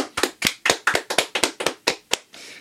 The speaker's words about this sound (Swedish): Det är förtjänt en, en eh, liten applåd tycker jag.